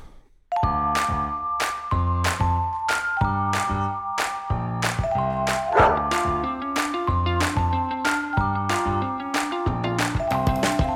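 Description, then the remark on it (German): Loud, evenly spaced dog barks repeat about once a second, arranged like a tune over ringing, bell-like tones, with no one talking. “Der will ja nur spielen.”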